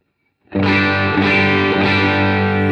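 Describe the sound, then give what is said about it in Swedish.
An electric guitar rings out through a Magnatone tube amp with a control set at a quarter to nine, giving a thick, overdriven tone, one sustained strummed chord held steadily after a short silent lead-in, with no voices. “Då spelar jag in i min Magnatone. Men hur låter det om de sätter den på kvart i, klockan, klockan nio istället då?”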